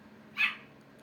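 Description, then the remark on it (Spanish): A single short, high-pitched dog bark breaks a quiet background with a faint steady hum. No one speaks. “Perdonen por los ladridos.”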